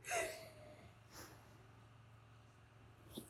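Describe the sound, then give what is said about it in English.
A single breathy yawn at the start, with a soft falling voiced tone fading out, followed by a couple of faint breaths over low background hum. Fairly quiet. “I've been yawning so much.”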